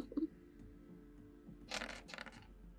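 Dice rattle and clatter across a surface in a short burst of quick clicks, with a brief second flurry as they settle, moderately loud against a quiet background.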